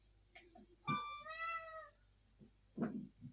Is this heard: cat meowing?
yes